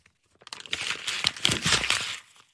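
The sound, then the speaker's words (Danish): An ordinary sheet of paper is unfolded into one large sheet and crinkled, a dense burst of crackling and rustling lasting about two seconds with no one talking. “Ja, nu folder jeg det ud, ikke? Ja. Bliver det til et helt stort stykke papir, ikke?”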